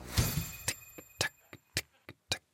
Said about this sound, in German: Das ist eine Uhr, die man immer wieder aufzieht. Dabei spannt sich eine kleine Metallfeder und treibt ein tickendes Uhrwerk mit Zahnrädchen an.